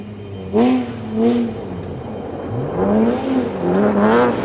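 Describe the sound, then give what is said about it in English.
A car engine revs in a series of rising and falling swoops, four bursts in a row, loud, with a steady motor hum between them and no talking. “also puts in some fun sounds for us uh, with the cars.”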